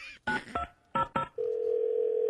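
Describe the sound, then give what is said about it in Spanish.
Four short bursts of telephone dialing tones in two quick pairs, followed by a steady, sustained dial tone humming at a constant pitch until the end. “para mandárselo a la gente, para ah, llamar por teléfono.”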